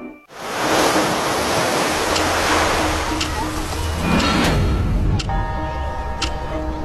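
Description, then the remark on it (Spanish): Steady, loud wash of ocean surf breaking on a beach of a remote island in the Indian Ocean, a continuous roar with gentle swells, while faint sustained tones creep in toward the end. “En una isla remota al otro lado del Océano Índico, a 4.800 kilómetros del área de búsqueda, aparece un trozo de metal en una playa.”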